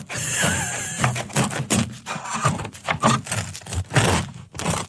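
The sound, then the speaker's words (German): A knife saws through a crusty loaf of bread, giving a run of dry, crackling scrapes in irregular strokes, fairly loud and with no talking over it. “Auf jeden Fall, dann schneiden wir es einfach mal an.”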